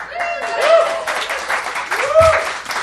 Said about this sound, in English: Hold for applause.